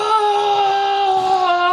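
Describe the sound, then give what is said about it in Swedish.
A woman lets out a loud, sustained Viking-style battle-cry scream, one steady high-pitched note held for nearly two seconds, with no talking around it. “vem var den där vikingakvinnan som skrek nu?”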